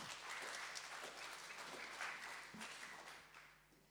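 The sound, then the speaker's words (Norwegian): Steady applause from an audience, a dense patter of many hands clapping at moderate volume that gradually thins and fades toward the end. “Jeg hadde er lov å klappe.”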